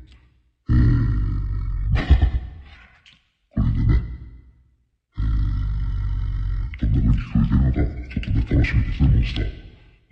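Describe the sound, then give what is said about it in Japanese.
A deep, gravelly voice made with a selected 'Monster' voice effect growls and roars in several loud bursts, with brief pauses between them and a longer rumbling stretch at the end; it sounds like a processed human voice. “モンスターのエフェクトを選んでみました。”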